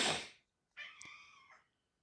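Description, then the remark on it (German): A cat lets out a single drawn-out, clear meow following a brief rustling noise, with no one speaking. “Oh, oh, oh, arme Katze.”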